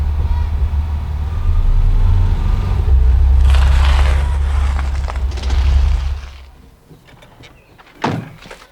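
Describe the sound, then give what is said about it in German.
A red Buick rolls in with a deep engine rumble and tires crunching over a gravel driveway, then the engine dies away, leaving quiet broken by a single sharp clunk near the end. “Da kommt ein roter Buick.”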